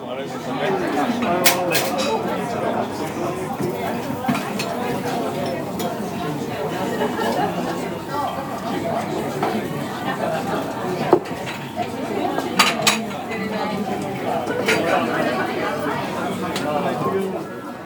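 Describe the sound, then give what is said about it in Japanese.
Dense crowd chatter fills the busy Iseya main store (いせや総本店) izakaya on a sunny day, many overlapping voices at a steady level, with scattered sharp clinks of dishes and cutlery cutting through, a few brighter clatters near the middle. “晴れのいせや総本店”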